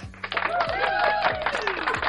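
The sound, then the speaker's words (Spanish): A short burst of recorded applause, a crowd clapping densely and steadily for about two seconds, with some cheering voices mixed in at a fairly loud level. “Te, o sea, te, te, voy a, te voy a meter un, aplauso.”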